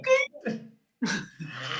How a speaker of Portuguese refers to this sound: tem uma crise de tosse que parece um cachorro chorando. É um engasgo, perdão.